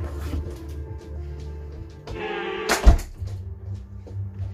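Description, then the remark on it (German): A person closes a door: it swings shut with a brief creaking scrape followed by a single solid thud, set against a low steady background hum. “Ich mache mal die Tür zu.”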